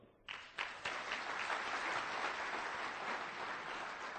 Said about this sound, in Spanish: Entonces, si tú, ¿quiénes son los que vienen por primera vez a la convención? Wow, des un fuerte aplauso.